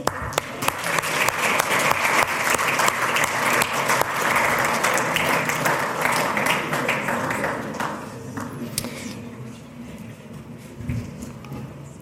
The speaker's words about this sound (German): Applaus.